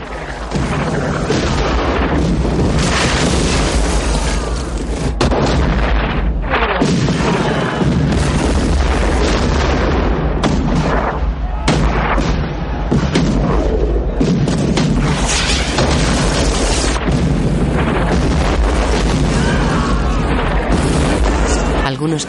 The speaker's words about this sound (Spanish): Disparan todos los morteros que impactan en la muralla y dentro del fuerte.